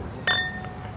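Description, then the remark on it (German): A single bright clink of wine glasses meeting in a toast over Corbières wine at an inn table, clear, with a short ringing tone that fades within a fraction of a second over a low background murmur. “In diesem Sinne, äh, Zum Prost. Wohl. Prost.”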